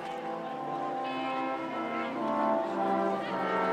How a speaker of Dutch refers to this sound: Het is een koude dag in Wenen. Hier en daar ligt er zelfs nog sneeuw. De kerkklokken luiden en van overal in de stad beginnen mensen toe te stromen naar de Alzenforstad, de wijk in Wenen waar Beethoven zijn laatste adres had.